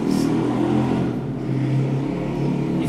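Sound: motorcycle passing outside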